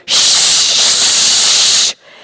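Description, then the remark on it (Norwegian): A person makes a loud, steady breathy hiss of almost two seconds, imitating the rush of wind. It starts and stops abruptly and is heard on its own, with no talking. “Den forferdelige lyden av vind.”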